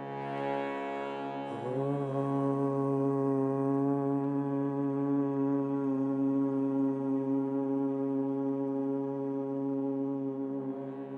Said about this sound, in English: Another way to become conscious of the group energy is through chanting. So try to be aware of both the sound you're creating and the group sound. So let's just start with humming. Big breath in. humming even louder.